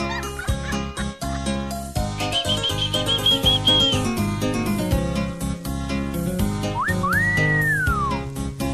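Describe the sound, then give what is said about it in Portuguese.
Bright electronic keyboard melody from a brega song plays loud and continuous over steady bass and drums, its high, whistle-like lead wavering on held notes and ending with a sweeping slide. “Ó, olha o tecladinho, olha lá.”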